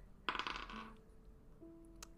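A quick burst of hard clattering as dice are rolled across a tabletop for a perception check, coming up a natural one, rattling for about half a second before settling into quiet. Fairly loud, with no voices.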